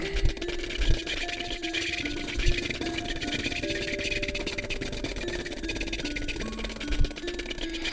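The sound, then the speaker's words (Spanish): A steady, dense whirring buzz of the wings of fifty or more hummingbirds, with shifting hum-like tones, continuous and growing louder, broken by a few soft low thumps and no talking. “Y se le unió otro, otro, otro, era como un papaloteo y como un zumbido, era un sonido muy extraño.”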